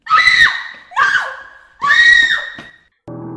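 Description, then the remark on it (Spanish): A woman lets out three loud, shrill screams in quick succession, each sustained and piercing, while showering as the shower curtain is pulled open, followed by a brief burst of different noise at the end. “Intenté fingir que solo había sido el viento, cuando, momentos más tarde, jalaron la cortina de baño y grité, y grité fuerte, muy fuerte.”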